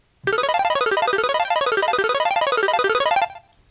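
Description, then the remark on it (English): A bright, buzzy synth preset from the Massive software synthesizer, used for a song intro, plays alone for about three seconds, its rapid pulsing notes sweeping up and down in a repeating wave pattern at a steady, loud level before cutting off. “And then I'm also using a sound called Pack Girl in Massive.”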